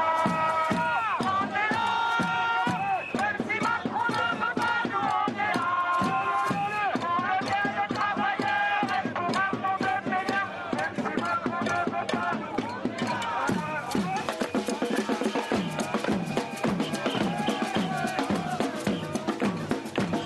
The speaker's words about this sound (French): Des manifestants se sont réunis sur le parvis de la mairie pour réclamer le retrait de la réforme des retraites à grands coups, et ça va devenir peut-être une mode, de casserole. Regardez.